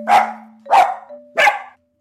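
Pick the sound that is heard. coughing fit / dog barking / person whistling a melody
dog barking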